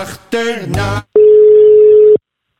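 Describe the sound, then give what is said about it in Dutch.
A single steady, mid-pitched telephone ringing tone sounds loudly for about one second after a call is placed to an ambulance colleague in Friesland. It is preceded by a short burst of gliding, harmonic tones. “Deze zomer ga ik bellen met”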